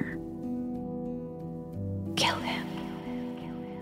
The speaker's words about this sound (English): And I know saying this out loud is going to sound insane, but I swear I heard a whisper in my ear.